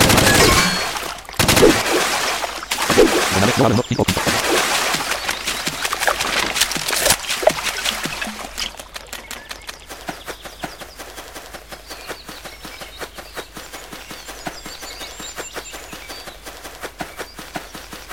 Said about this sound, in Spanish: Entonces, es un arma que hace mucho ruido, pero... Sí, como, como diría el refrán, mucho ruido y pocas muestras.